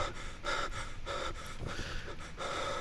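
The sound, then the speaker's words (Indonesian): Heavy, ragged panting breaths of a man waking from a bad dream, coming in quick repeated bursts of roughly four or five gasps with brief pauses between, no talking. “Ia pun terbangun dengan nafas tersengal”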